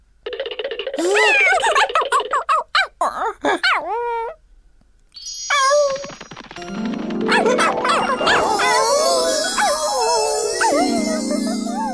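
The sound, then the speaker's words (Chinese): A dog whines and whimpers in a string of high, wavering cries, pauses briefly, then breaks into louder, sustained howling over a dense wash of other noise. No one speaks. “耶，奇怪，怎么有条狗躺在这里睡懒觉？”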